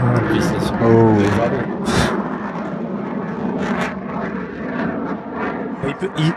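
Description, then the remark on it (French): A Rafale fighter jet engine roars loudly and steadily for several seconds, a dense rushing blast of noise with a brief tonal whine near the start and some faint voice sounds mixed in. “Un bel avion mentionné par Alexandre. Rafale.”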